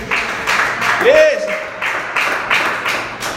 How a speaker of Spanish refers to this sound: Alguien tiene que darle un aplauso a Dios por eso.